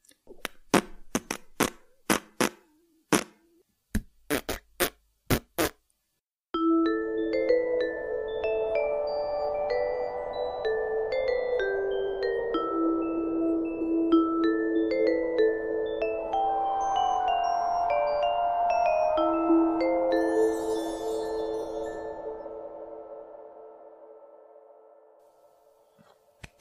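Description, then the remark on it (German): Lips buzz out a tune after a quick run of sharp pops: sustained raspberry-like tones step up and down in pitch, steady and fairly loud, with no talking, then fade out. “Das war halt ein Lippenblaskonzert. Ein Lippenpupskonzert. Für Leute, die nicht ganz so gut pfeifen können.”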